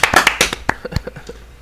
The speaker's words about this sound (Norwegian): En liten applaus